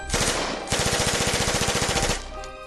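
Rapid, sustained tommy gun fire: a dense stream of sharp, loud bursts in an even rhythm, briefly pausing near the start, then continuing for about two seconds before cutting off into a fading echo. Fired in public by Al Capone's men on Valentine's night 1929 at seven members of a rival Irish gang.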